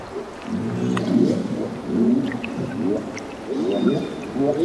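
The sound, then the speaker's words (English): Underwater calls of feeding humpback whales in Alaska's Glacier Bay, with a harbor porpoise and a pod of orcas: low, wavering harmonic moans rising and falling in overlapping bursts, with faint high whistles drifting in above them. Recorded by Bernie Krause. “Humpback whales are feeding and calling. And nearby, a harbor porpoise chimes in, as well as a pod of orcas.”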